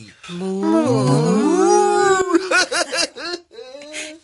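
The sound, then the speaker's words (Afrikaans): Voices imitate a cow during a game of "Moshe says" (like Simon says), with long, drawn-out moos that waver up and down in pitch for about two seconds, then break into bursts of rhythmic laughter and one more short hum. “Moshi sê moo soos 'n koei.”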